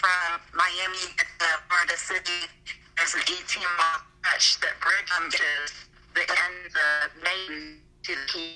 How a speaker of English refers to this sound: You're glitching. And uh, Maine. You be gl- um, you be glitching. I don't know why, but you're glitching real bad. Can you hear me at all? Yeah, I can hear. Yeah, well, I can, yeah, yeah. You're, you're in and out.